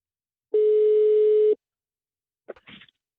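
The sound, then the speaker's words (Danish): A single steady telephone ringing tone sounds for about a second, loud and clear, followed after a pause by a brief crackle and murmur as the line picks up. “Så øh, tidligere i dag, der øh, ringede vi lige til dem, for lige at aftale nærmere om, øh, om det her projekt.”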